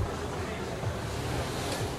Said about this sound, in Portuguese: E olha como chove.